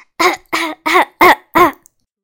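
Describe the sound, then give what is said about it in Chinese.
Five loud, evenly spaced coughs from someone with a cold and an itchy throat, in a steady rhythm, each short and strongly voiced with a throaty, almost sung tone, and brief silences between them. “因为我嗓子痒，总想咳嗽。”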